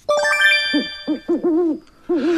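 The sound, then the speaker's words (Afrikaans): An owl hoots several times in a quick, uneven series after a brief rising tonal sweep, then gives one last hoot after a short pause. Clear, with no talking. “Daar was eenmal 'n een baie nuuskierige uil.”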